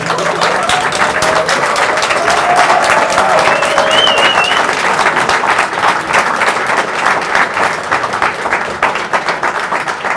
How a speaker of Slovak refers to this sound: Taktože Martin Mojžiš je natoľko inteligentný, že on vie, že to povedal dobre a hovorí to preto, aby ste takto zatleskali, Čiže to zase sa poznáme.